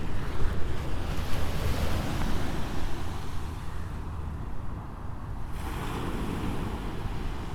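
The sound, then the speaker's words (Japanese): Ocean waves wash steadily onto the shore in a continuous roar of surf, with gusty wind noise buffeting the microphone; no one speaks. “波の音をお届けしています”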